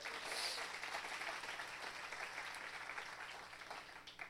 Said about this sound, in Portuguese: Ô oh, glória, aplaude Jesus por isso.